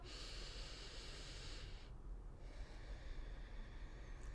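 One slow, deep breath through the nose: a long airy inhale, a brief pause, then an equally long exhale, steady with no talking. It is the first of three breaths in a breathing exercise, taken with eyes closed.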